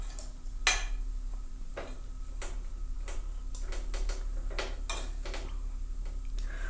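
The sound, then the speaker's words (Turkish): Repeated light metallic scrapes and ticks as a utensil stirs shredded pastry with walnuts around a steel pan while it cooks, irregular strokes over a steady low hum, moderately quiet, no talking. “Birkaç kez karıştırdıktan sonra altını kapatacağım ve muhallebiye başlayacağız.”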